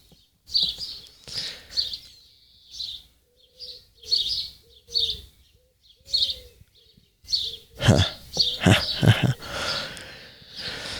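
Birds chirp and sing outdoors in repeated short bursts, clear, with busier overlapping calls toward the end and a soft low coo underneath; no one speaks.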